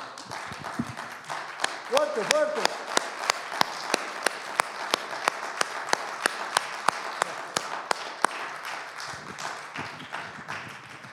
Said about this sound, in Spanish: Démosle fuerte aplauso a Él.